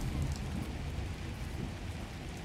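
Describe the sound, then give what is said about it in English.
Heavy rain pours down in a steady, dense hiss with a deep rumbling undertone like thunder, continuous and fairly loud throughout, with no voices. “as he stands in the never ending rainstorm cold air is a breath of freshness compared to the sterile environments inside”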